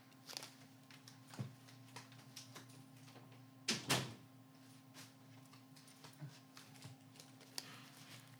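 A door is shut with a solid thud and brief rattle, standing out among quieter clicks and small handling noises against a steady low hum.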